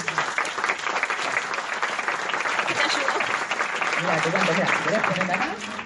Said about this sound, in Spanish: ¿Puedes pasar un segundito acá? Es muy rápido. Le damos un aplauso para animarse.